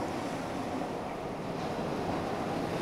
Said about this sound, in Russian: Что же, друзья, вновь проехал быстроходный неистовый поезд.